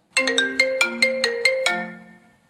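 A bright, bell-like Apple iPhone ringtone plays a quick melodic phrase of about eight plucked notes, clear, with the final note ringing out and fading. No voices.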